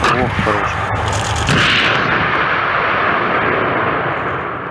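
A Russian 9K330 Tor (NATO name SA-15 Gauntlet) air-defense system fires a missile during exercises with a loud blast that turns into a sustained rushing roar, holding steady for several seconds before beginning to fade.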